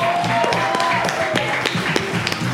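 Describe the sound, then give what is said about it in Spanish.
A crowd in Santo Domingo, Heredia, Costa Rica applauds with dense, continuous clapping, a steady wash of many hands with sharp individual claps standing out, loud, with faint voices mixed in. “Un aplauso para Artisan por ser la casa una de las casas oficiales de la paja nocturna aquí en Santo Domingo, Heredia.”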